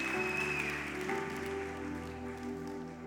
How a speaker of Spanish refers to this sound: Y si usted cree en el advenimiento del Mesías, yo le invito a que dé un aplauso al Señor y se coloque sobre sus pies. Colóquese sobre sus pies.